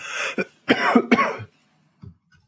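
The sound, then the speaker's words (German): A loud burst of harsh coughing from a person with a cold, three or four rough hacks in quick succession, followed by a couple of faint throaty sounds as it settles. “Entschuldigt, ich bin ein bisschen äh, erkältet.”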